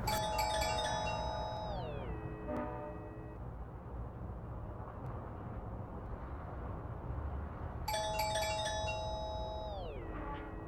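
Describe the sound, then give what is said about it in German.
A doorbell chimes twice, each ring a multi-tone descending ding-dong melody, separated by several seconds over a steady low background hum, with no one speaking. “Äh, ja, ich würde vorschlagen, wir klingeln einfach mal.”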